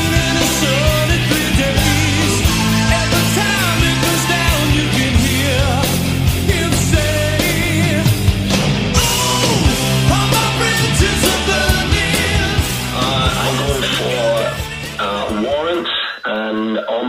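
A loud, dense stretch of hard rock plays throughout, with pounding drums, thick distorted guitars and a singing voice, staying at full intensity before thinning out in the final second.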